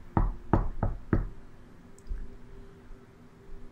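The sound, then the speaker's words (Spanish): Four firm knocks on a wooden bedroom door in quick, even succession, clear, followed by faint room noise and a soft thud. “Recuerdo muy bien que fueron a tocar mi puerta de mi cuarto.”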